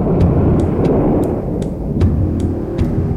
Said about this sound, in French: Il fait une chaleur à crever. Le ciel est gris, cotonneux. Il y a de l'orage dans l'air. Au loin, le tonnerre gronde.